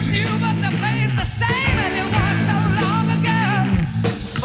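A loud, dense rock track with pounding drums at full volume and sustained guitar chords, while a man's shouting vocal sits back in the mix, in the background beneath the instruments.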